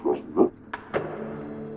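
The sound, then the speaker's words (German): The downstairs front door of an apartment building opens in the evening: two soft thuds, then a pair of sharp latch clicks, followed by a steady, low droning creak that carries on to the end. “Dann äh, äh, hörte ich die, die, die Tür auf”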